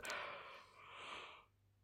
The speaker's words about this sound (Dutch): moet je misschien toch een paar gaapjes eruit zetten. Dat krijg je ervan als je gaat liggen voor een warme kachel als je deze podcast opneemt.